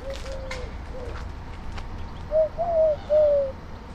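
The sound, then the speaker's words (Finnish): A male Eurasian collared dove coos from a treetop: soft, low, hollow notes at first, then a clearer three-note phrase near the end, steady and mellow over a quiet background rumble. “Mutta mitään varsinaista Turkin kyyhkyjen huhuilua ei ole havaittavissa.”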